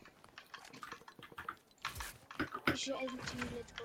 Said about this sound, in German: Ey, hört man meine Tasten klicken oder nicht?